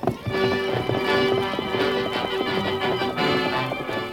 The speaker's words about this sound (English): No hoofs had ever beat the plains like those thundering hoofs of the great horse Silver.